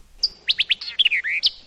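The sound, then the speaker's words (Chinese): A bird sings in spring, heard from a grassy meadow, a quick run of high, bright chirps and short whistled notes, about a dozen in rapid succession, with clear trills standing out alone with no voices. “春天，皮皮躺在草丛里听鸟叫；”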